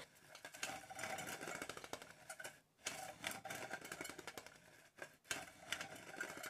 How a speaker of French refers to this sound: Oui, il y a un son euh, en cuisine, je pense, qui me, me fait penser à mon enfance. C'est vraiment euh, le son de la moulinette.